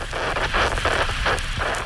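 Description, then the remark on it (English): Steady AM radio static, as heard on transistor radios across the Gold Coast in 1967, hisses and crackles without a break, swelling in soft rhythmic waves of noise. It's fairly loud, with no voices. “and the static of AM radio can be heard on transistors across the Gold Coast.”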